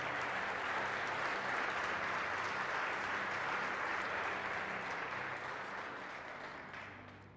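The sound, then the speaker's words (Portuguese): An audience at a Pentecostal church service applauds the Lord loudly and steadily, a dense wash of many hands clapping that holds strong throughout before gradually thinning and fading toward the end. “Dá um glória a Deus de verdade mais alto e aplauda ao Senhor aí.”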